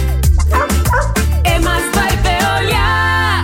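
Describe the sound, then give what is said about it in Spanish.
A dog barks and yips several times in quick succession, loud, with whiny tones between the barks over a steady low musical background. “Recoge del piso lo que tu perro hizo.”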